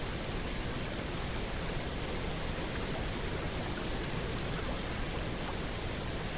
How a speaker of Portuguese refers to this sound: Ficamos aqui, sentindo ao mesmo tempo a força da cachoeira e o som delicado e melódico da água à nossa volta batendo na pedra.